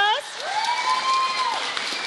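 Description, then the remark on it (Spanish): A crowd applauds steadily for about two seconds for a band, the clapping dense and fairly loud, with a drawn-out cheer or whoop rising above it. “Aplauso para ….”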